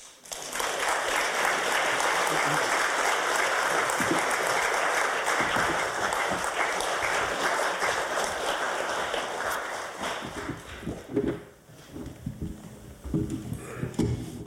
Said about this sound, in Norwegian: Gi han varm applaus.